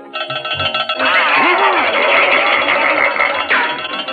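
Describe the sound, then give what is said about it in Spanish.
A loud, continuous bell rings steadily for several seconds at the start of a horse race, its bright metallic clang filling the foreground while a voice speaks faintly underneath. “¡Ay, olvidé la campana!”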